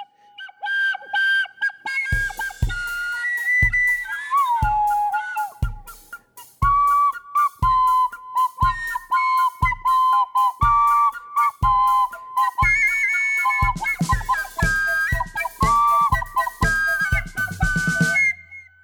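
A melody whistled with the mouth, clear and bright, over a steady thumping beat, with the tune sliding between notes and carrying on for nearly twenty seconds without any talking.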